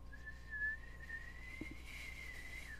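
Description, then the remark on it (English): A teapot on a stove whistles steadily in one long, shrill, sustained tone that rises slightly in pitch, with faint low background noise beneath it and no voices. “And she takes some cups out from under the counter and starts pouring, pouring off the steaming liquid into a cup and takes the teapot and puts it on a side burner.”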